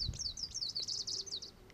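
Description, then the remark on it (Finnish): A greenish warbler sings a rapid, high-pitched warbling phrase of thin, bright notes, clear, with faint low background rumble and no voices. “Viikon luontoääni: Idänuunilintu”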